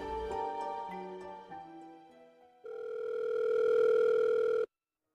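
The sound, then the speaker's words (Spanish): A rapid series of electronic dial tones beeps out at varying pitches as a call is placed to Jorge's mobile phone, then a long steady call tone sounds for about two seconds before cutting off abruptly, unanswered. No voices. “Intenta llamar ahora al celular de Jorge, sin éxito.”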